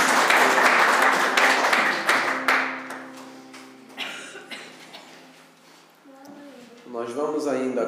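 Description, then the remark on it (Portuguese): An audience applauds loudly, a dense crackle of many hands clapping that swells, then gradually thins and fades, with voices and sustained tones emerging as the clapping dies down. “Aplauda bem forte então, se Deus fiel, como Jesus.”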